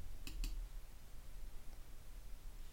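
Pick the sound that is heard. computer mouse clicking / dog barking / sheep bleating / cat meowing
computer mouse clicking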